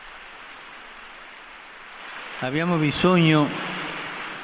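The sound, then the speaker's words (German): Steady, soft crackling spontaneous applause from an audience, an even wash of clapping that carries on as a man begins speaking over it. “Dafür gibt es spontanen Applaus.”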